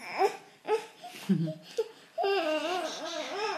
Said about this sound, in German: Nadine hat jetzt gerade noch ihr Baby auf dem Arm, das gerade Einschlafschwierigkeiten hat.